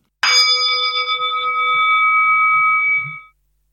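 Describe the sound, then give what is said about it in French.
A single struck Tibetan singing bowl rings out with a bright metallic attack, then sustains a shimmering, steady tone for about three seconds before fading, heard alone; one note played on a bowl taken from a home cupboard. “sortez le bol tibétain du fond de votre placard pour nous réaliser une note avec votre bol qui sera le côté mystique du morceau que nous allons interpréter.”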